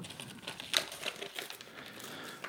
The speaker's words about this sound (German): Das Geschenkpapier kannst du kaputt machen.